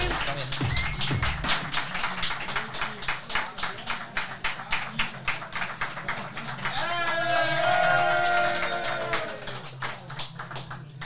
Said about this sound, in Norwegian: Ja, det var applaus til Åsmund Bjørkan.